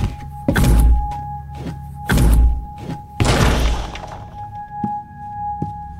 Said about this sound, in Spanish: Echemos la puerta abajo.